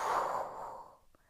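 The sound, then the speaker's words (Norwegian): A single slow, breathy exhale after holding the breath during a guided breathing exercise, a soft airy whoosh that fades out gradually over about a second, with no talking. “Og pust ut.”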